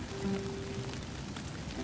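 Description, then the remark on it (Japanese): Steady rain patters on a surface, a dense continuous hiss of drops with a faint low hum underneath, no voices. “うん、まあ、その場合、まあ、雨の中も強行突破しようかなとも思ってるんですけども”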